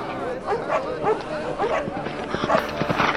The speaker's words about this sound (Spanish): Y se armó la gran bataola, se escuchan ladridos, golpes, alaridos.